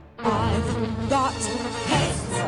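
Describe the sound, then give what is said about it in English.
A mosquito's steady buzzing whine drones on without a break for a couple of seconds, wavering slightly in pitch, with no voices. “It's time to mount a counterattack on mosquitoes and reclaim your yard.”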